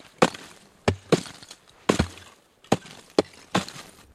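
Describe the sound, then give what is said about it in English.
Someone chops at ice alongside whalers: about seven sharp, cracking blows at an uneven pace, each one a loud splintering thwack with a brief rough tail, and no talking. “Finally, I convince them it'll be okay, and I chop too but I'm not a very good chopper because, like wood chopping, it helps to be accurate and strong.”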